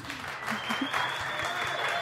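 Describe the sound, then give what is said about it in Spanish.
A short burst of steady clapping from several people during a Radio Mod broadcast, dense and fairly loud for about two seconds, with a faint high whistle-like tone running through it. “Aplausos, por favor. Aplausos.”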